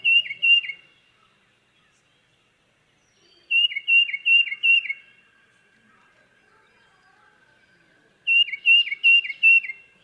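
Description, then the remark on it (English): A flock of birds swarming a yard chirps together in three loud bursts of rapid, repeated high notes separated by quiet gaps, with a faint steady whistling tone lingering between the later bursts. “They swarm your yard and then they all do that at the same time.”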